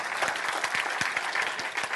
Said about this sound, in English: I'm going to wait while you clap better than that. I think you should.